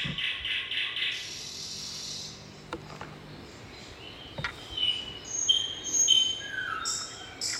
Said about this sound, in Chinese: 夜莺在黑夜当中。能够发出美丽的这个歌声